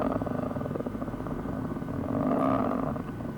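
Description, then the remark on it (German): A steady, low aircraft engine drone hums continuously, broad and rumbling with a slight pulsing texture, swelling a little louder midway before settling back, with no voices over it. “ist das jetzt der Motor oder?”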